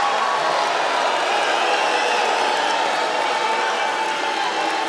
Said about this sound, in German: Vorne am Podium schreit der Präsident herum mit hochrotem Gesicht und orangener Haarpracht, beschimpft die Medien und Journalisten als Lügner und Betrüger. Die Menge grölt und pfeift und buht.